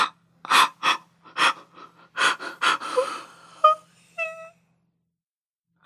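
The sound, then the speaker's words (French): A woman weeps, a series of sharp, gasping sobs followed by a few short, high-pitched moaning whimpers before she falls quiet. “Tu pleures encore bah, allez, va travailler”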